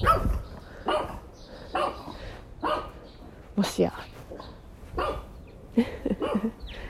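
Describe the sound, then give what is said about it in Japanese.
A dog barks from behind a fence, its nose showing through the fence, in short, evenly spaced bursts about once a second, while a person speaks quietly underneath and outdoor ambience hums in the background. “今私吠えられているんですけどここのワンちゃんはねなかなか出てこないワンちゃんなんですねフェンス越しから鼻が見えるという神出鬼没なワンちゃんなんですが”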